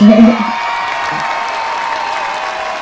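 A burst of applause and cheering, with a brief voice at the start, then a steady wash of crowd noise that holds at an even level to the end.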